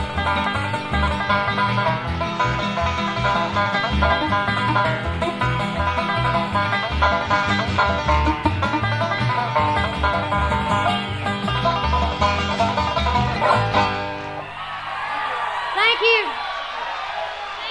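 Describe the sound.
A bluegrass band plays briskly with a loud, steady beat while a singer yodels, the voice leaping and warbling between low and high pitches. Near the end the backing thins out.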